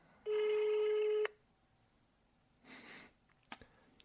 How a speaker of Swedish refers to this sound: Vi tänkte rim, ringa ett random nummer bara på telefonen.